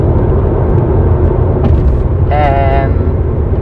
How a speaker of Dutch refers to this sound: dan eh, schud ik een klein beetje. Maar dat komt omdat de auto gewoon eh, natuurlijk iets beweegt.